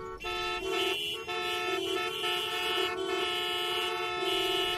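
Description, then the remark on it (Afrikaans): Car horns from cars and taxis blare almost continuously on a busy small-town street during the day, several overlapping honks with brief gaps, loud over a constant street rumble, with no talking. “Die paar strate is vol karre en taksies en mense wat gesels en produkte in stalletjies op straat verkoop.”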